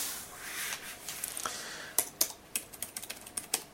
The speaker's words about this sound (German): Aber es sieht eigentlich äh, ein sehr angenehmes Tippgefühl.